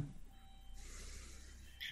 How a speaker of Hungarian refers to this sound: hogy a riasztó, de csak tolat egy teherautót.